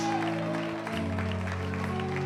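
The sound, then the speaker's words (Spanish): A church audience applauds loudly in praise of God, with dense, steady clapping while sustained keyboard chords hold underneath. “Es motivo para aplaudir con fuerza, es motivo para alabar a Dios.”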